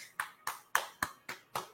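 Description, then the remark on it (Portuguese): Six crisp hand claps in a steady, even rhythm, fairly loud, with no talking around them. “Palmas.”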